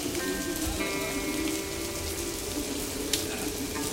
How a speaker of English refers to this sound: you see one and sit by it and look knowingly at the constant downfall of water, and you suddenly understand why there's so many fountains in the city.